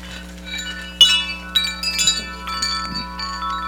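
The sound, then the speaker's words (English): Wind chimes tinkle and ring in overlapping metallic tones, several gentle strikes sustaining into a shimmering wash. Moderately loud over a steady low hum, with no talking. “But all the other wind chimes are in there.”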